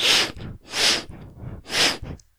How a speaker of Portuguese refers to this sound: E aí, depois de uns 20 minutos de filme, eu notei que eu tava o tempo todo fungando meu nariz assim.